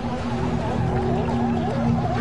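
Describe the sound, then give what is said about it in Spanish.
A dense chorus of sea lions on a crowded beach barking and groaning overlaps continuously, loud, with many animals calling at once over a steady low rumble. “La playa estaba llena de leones marinos.”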